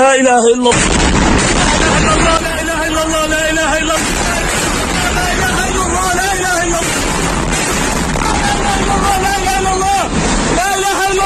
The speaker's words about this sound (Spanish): esto que escuchan es el terror que se vive ahora mismo en Gaza, bombas cayendo en la ciudad, destrozando edificios, también eh, destrozando muchos edificios donde había medios de comunicación.